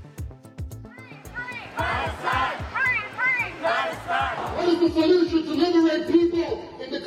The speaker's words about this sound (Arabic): وبعد مرور ثلاثين عاماً بات حزب التحرير الاسلامي محظورا في بريطانيا ويصنف منظمه ارهابيه بعدما رددت شخصيات بارزه في الحزب هتافات مماثله في تظاهره مؤيده لغزه في احد شوارع لندن